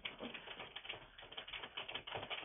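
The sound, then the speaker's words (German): Rapid, steady clatter of keys as someone types a reply on a keyboard, continuous for a couple of seconds with no voices. “Jetzt antworte ich mal.”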